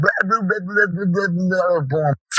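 A dog barks and yaps in a rapid, almost unbroken string for about two seconds, loud, then stops abruptly, followed by a brief hiss of noise.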